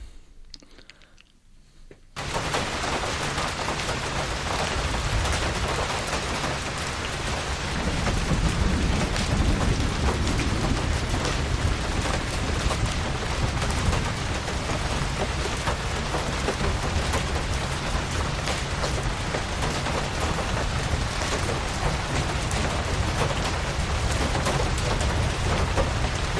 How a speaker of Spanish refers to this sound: Eh, llueve, esta es eh, un sonido de lluvia. Aquí en Madrid no está lloviendo, hace calor incluso, pero en alguna parte del norte quizá llueva.